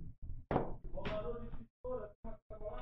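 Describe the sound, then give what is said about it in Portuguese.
The plastic backrest of a chair gives way as a man leans back, with a loud crack and a heavy thunk, followed by a few smaller knocks and creaks, while a man's voice speaks over and after the break. “Mano, minha cadeira quebrou.”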